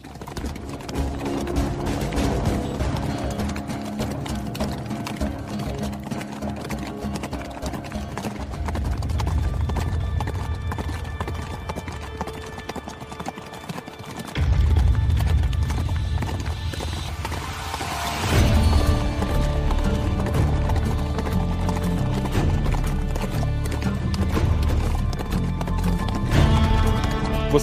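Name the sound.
horse hooves clip-clopping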